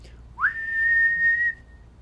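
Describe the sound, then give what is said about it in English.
A person whistles through pursed lips, putting the lips together and blowing: one note that swoops quickly up, then holds steady and clear for about a second before cutting off, with no talking. “you put your lips together and blow like this”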